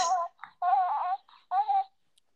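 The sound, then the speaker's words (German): Three short bursts of high, harmonic baby-like babbling, with tonal, slightly wavering syllables and brief pauses between them, the recorded voice of a plush baby toy, played by pressing on its chest. No one speaks. “Mhm, man kann sogar Geräusche machen, wenn man auf die Brust dra also drauf drückt.”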